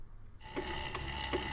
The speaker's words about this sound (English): What you are hearing is the sound of a spin class minus the overly excited instructor and bass thumping music. For those of you that, that don't know what a spin class is, it's basically a group exercise class, very popular with women,